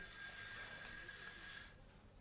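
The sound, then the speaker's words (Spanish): A call bell rings continuously for nearly two seconds to summon a maid, a bright, steady metallic ringing that cuts off abruptly, leaving a faint hiss. No one speaks. “Con su permiso llamaré a mi doncella.”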